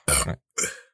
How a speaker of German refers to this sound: Also, ich bin erkältet. Ja, ich bin erkältet, ich habe ich hab Rülpshusten.